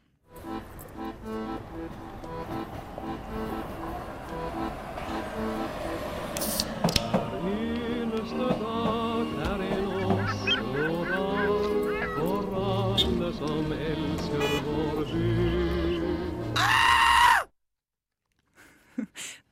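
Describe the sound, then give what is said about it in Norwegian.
The Oslo Onsdag segment jingle from the Norwegian radio show Skumma kultur: about seventeen seconds of dense, layered musical sound with sliding, honk-like pitched tones and sharp accents, ending abruptly into a short silence. “var da eh, Oslo Onsdag-jinglen du hørte der.”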